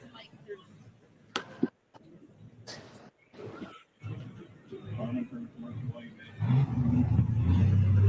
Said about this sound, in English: Yeah, brother made a test pass on the dad's tractor bulletproof buck. Here we go, the young man out of Nordheim, Texas.